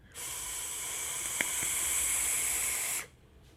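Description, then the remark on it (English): A steady, airy sizzle of a vape being drawn through the drip tip of a mech mod, lasting about three seconds with an even hiss and a tiny click midway, then cutting off abruptly. No one speaks. “Anyway, let's try a few toots on this.”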